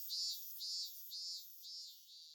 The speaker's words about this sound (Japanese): 彼女はぼんやり頬杖をついて、炎天の松林の蝉の声に、我知れず耳を傾けている彼女自身を見出しがちであった。